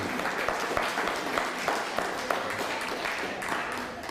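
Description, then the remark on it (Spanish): A crowd applauds steadily, many hands clapping in a dense, continuous patter that holds at an even, fairly loud level for several seconds, with no voices standing out. The applause greets a viewer from Ecuador. “Saludamos a Valeria Rentería desde Ecuador. Fuerte aplauso, Ecuador.”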